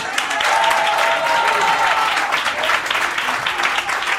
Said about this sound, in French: Ah oui, on les applaudit une fois, oui, oui.